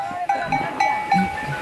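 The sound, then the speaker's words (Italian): A flock of livestock moving with large bells (campanacci): irregular metallic clanks and ringing tones overlap and repeat every fraction of a second, with a soft, murmuring background of animal movement. “Ma questo è un gregge.”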